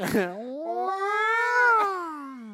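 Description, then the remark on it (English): A person vocally imitates a cat's drawn-out wail, one long rising-then-falling yowl lasting a couple of seconds, clear, starting with a brief noisy burst. “It goes, wow. Sounds like a dying cat.”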